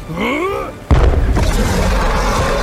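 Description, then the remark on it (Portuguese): A warbling, whistling tone plays for a moment before a poison bomb thrown at a hydra, a sea monster, bursts with a sudden loud boom, followed by a sustained roaring hiss and low rumble that continues to the end. “Falou Jake, após descer de uma corda e lançando uma bomba de veneno na hidra.”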